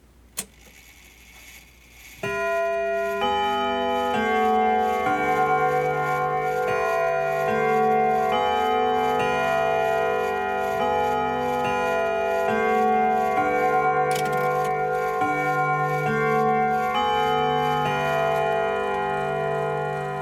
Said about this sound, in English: As Judith watched Richard turning the leaves of the Bible, looking for some favorite passage, she heard the clock begin to strike.